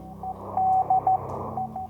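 A steady, mid-pitched Morse code tone beeps in short dots and a longer dash over crackling radio static and low hum, clear, with no voices.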